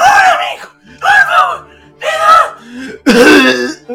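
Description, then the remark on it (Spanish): A person vocally mimics a woman's harsh, violent coughing: four loud, raspy bursts in a rough rhythm, each strained and throaty, with brief pauses between them. “Porque claro, si llega una señora tosiendo el alma, así como... como”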